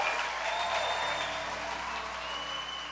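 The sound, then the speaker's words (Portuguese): The audience at Lagoinha church applauds the baptism class steadily, a dense wash of clapping that holds at an even, fairly loud level for the whole stretch with no talk over it. “Vamos aplaudir a turma do batismo aqui mais uma vez.”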